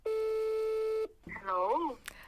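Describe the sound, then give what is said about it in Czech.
A single steady telephone ringing tone on an outgoing call to a friend, clear, holds for about a second, then cuts off as a voice answers over the phone line. “Tak já jdu volat a zkusíme, jak to bude.”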